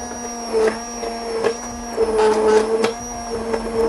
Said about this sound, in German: Ist ein kleiner Pürierstab.